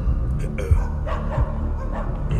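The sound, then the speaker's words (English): A person imitates a dog barking with a few short, rough vocal barks in quick succession over a low background rumble. “You get a quick whiff of blood, and you hear barking.”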